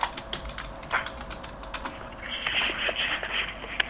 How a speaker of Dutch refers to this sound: Dat is de Common Grasshopper Warbler. Ja. Dus die heet wel dan um, war, eh, Grasshopper Warbler.